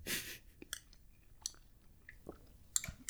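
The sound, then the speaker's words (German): Wet chewing with irregular crunchy and clicky mouth sounds, a loud burst at the start followed by scattered smaller bites and smacks, no talking. “Ich habe eine im Mund. Ja, das geht nicht. Dann warten wir noch.”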